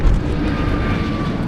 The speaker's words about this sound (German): Eben hat er abgehoben. Der erste Start von der Startbahn 18 West.